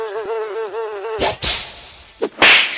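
A bee buzzes in flight, its drone wavering in pitch for about a second, followed by several short, noisy whooshing bursts.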